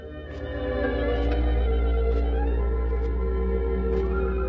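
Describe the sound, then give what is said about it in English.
A loud, steady electrical hum drones from a portable radio, thick with buzzy low harmonics, while faint ticks recur about once a second; no one speaks. “Is there an annoying hum in the background?”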